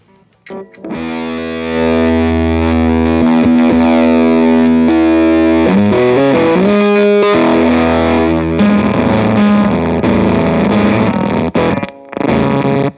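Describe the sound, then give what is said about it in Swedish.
Electric guitar played through a booster placed before a fuzz pedal: thick, saturated sustained chords ring loud, then the tone breaks up into gritty, sputtering noise with abrupt cut-outs near the end. “men en sak där det verkligen ballar ur, det kan jag säga, det kan man nästan nog bara höra på brusnivån, det är om man kör en booster innan en, eh, en fast.”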